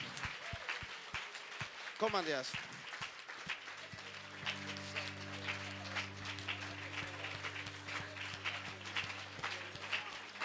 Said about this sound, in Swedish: Vi har fyra bröder från Island här. Vi måste bjuda fram dem. Amen. Ge dem en applåd.